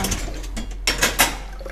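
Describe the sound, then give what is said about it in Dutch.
Dishes clatter as a dishwasher is loaded: a few sharp clinks and knocks, three of them louder in quick succession, over a steady low hum with no talking. “En ik heb de vaatwasser.”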